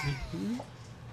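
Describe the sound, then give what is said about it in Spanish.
A cat meows once, a short, fairly clear cry that rises and falls in pitch, with a faint murmur of background noise. “Hombre, tienes gata, que ¿no?”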